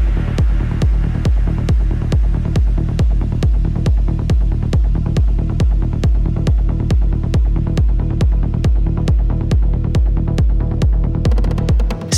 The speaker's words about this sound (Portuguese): Seguindo aqui na nossa seleção de progs, sim, de progs, essa track que você tá ouvindo aí no fundo tá numa linha muito diferente do que você ouviu aí nesse episódio